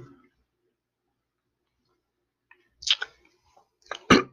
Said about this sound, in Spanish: Me acabo de dar un trago a mi Coca-Cola, este, a mi Diet Coke.